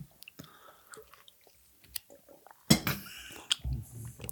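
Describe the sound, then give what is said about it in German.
Wet chewing of a man's full mouth: scattered squelches and smacks at first, then a louder, denser burst of munching toward the end. No one speaks. “Der Mann mit dem vollen Mund”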